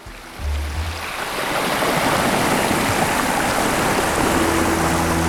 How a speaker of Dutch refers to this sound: Hoe de zee ook zingt, je herkent haar als de zee. Altijd hetzelfde, altijd net een beetje anders. Babbelend in het IJslandse haventje van Helnar, omringd door een muur van basalt